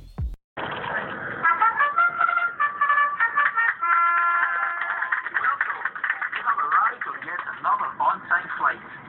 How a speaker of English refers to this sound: So join me on my audio plane as we get a shitty Ryanair sound flight to check out political happenings in the elsewhere.